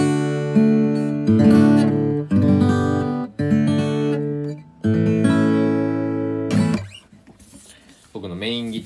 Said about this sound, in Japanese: この前のギター修理、えー、メンテナンスを終えて戻ってきて、エピフォンの J45 モデルが戻ってきまして、素晴らしくいい音になってます。